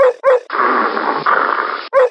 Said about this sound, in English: Montana instantly saw the source of their frenzied barking.